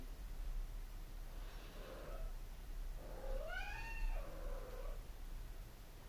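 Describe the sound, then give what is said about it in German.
A cat named Blackie meows twice over a low, steady background hiss: first a short, soft mew, then a longer, drawn-out meow that rises and falls in pitch. No one speaks. “So mauzt Blackie.”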